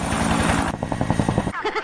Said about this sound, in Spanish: No me quiero abajar del helicóptero.